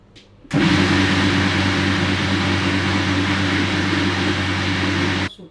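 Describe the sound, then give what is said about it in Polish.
A blender runs steadily for about five seconds with a loud motor hum and strong low harmonics, grinding porridge with nuts that adds a gritty, rattling crunch before it abruptly stops. “Tutaj akurat tak nie ma, ale słychać takie chrobotanie na przykład tych orzechów.”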